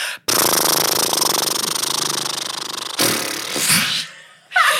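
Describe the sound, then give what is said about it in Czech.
A loud lip trill done as a lip exercise: a steady, rapidly fluttering buzz of relaxed vibrating lips with voice held for about three seconds, followed by a shorter breathy burst. “Uvolní se rty a do toho se vypouští zvuk a dělá se”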